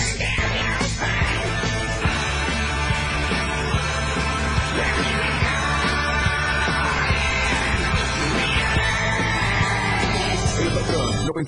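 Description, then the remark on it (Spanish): A man yells loudly and forcefully, his shouting sustained over a dense, busy background that runs continuously from start to finish. “No, nadie se salva de los gritos patronescos.”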